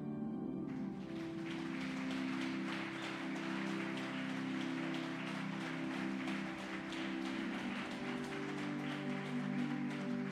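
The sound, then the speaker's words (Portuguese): A church audience claps steadily and densely for about ten seconds, applauding all the men of the church, a continuous patter of many hands over a sustained keyboard or organ chord. No one speaks. “Aplauda ao é Senhor para todos os homens da nossa igreja.”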